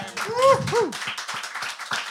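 An audience claps for a person among them, a steady, dense patter of many hands, with a brief rising vocal whoop or cheer near the start before the applause continues on its own.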